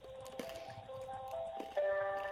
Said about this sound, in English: when you listen back to this i want you to know that i'm eating m&ms because i have no idea what's going on